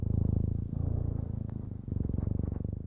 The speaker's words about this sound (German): Unser Kater, der Tiger, schnurrt entweder, wenn er gekraut werden will oder wenn er eine Wunde hat.